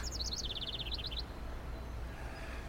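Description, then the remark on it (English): A quick run of thin, high-pitched chirps from young birds, rapid and repeated for about a second over a low outdoor rumble, then the peeping stops and only background hum remains. “Where's your mama? Out digging up worms, probably.”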